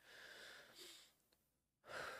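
A long, airy inhale, a brief quiet pause, then a louder rush of breath pushed out as the exhale begins. No one speaks.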